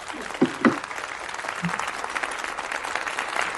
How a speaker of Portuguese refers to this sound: Merece palmas também, velho. Dá palmas pra esse cara aí, velho.